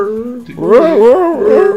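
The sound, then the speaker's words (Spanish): A person imitates a dog whimpering: a high, nasal whine that wavers up and down in pitch for nearly two seconds, with no other talking. “Yo imagino el perrito ahí con llenos al mercado y con su lista.”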